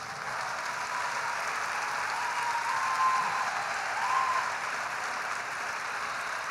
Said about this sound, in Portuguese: E vamos aplaudir muito por cada mulher incrível que está tomando essa decisão.